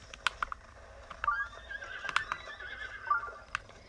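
A blue horse in a video game whinnies with a high, wavering cry, mixed with sharp clip-clop hoof clicks in an uneven rhythm as horses run away in a line, fairly quiet over a low background rumble.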